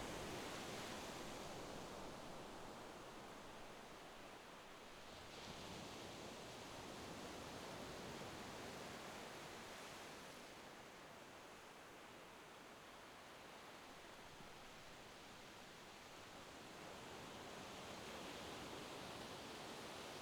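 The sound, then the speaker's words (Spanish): A steady, soft hiss of ocean surf washes in and out at the shore of a beach, with gentle swells rising and easing every few seconds as small waves break a few metres away. No voices. “Esas suaves olas que te llevan acompañando un rato y que rompen a unos metros de ti.”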